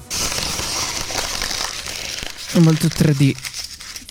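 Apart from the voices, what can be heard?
paper being crumpled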